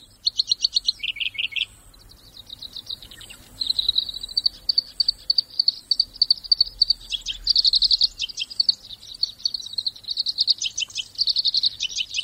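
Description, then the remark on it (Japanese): A black-browed reed warbler at the Sarakitanai River in Hokkaido, Japan, sings a long, rapid run of high, crisp, buzzy phrases, with a brief pause after the first burst before the song surges back and continues without letup. No one speaks. “サラキタナイ川（北海道）のコヨシキリをお届けします。”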